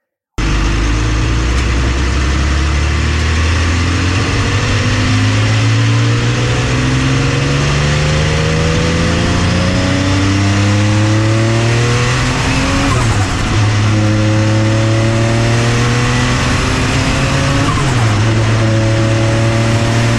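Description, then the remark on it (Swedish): A Porsche Le Mans race car engine roars loudly as the driver turns around and accelerates hard again, revving up through the gears in repeated rising sweeps, with brief drops at each shift and a faint tire squeal. “Um, så vänder jag och kommer tillbaka och ger på en gång till.”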